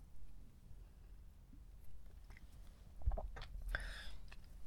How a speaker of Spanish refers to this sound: Pausa para trago de café y ya empezar bien.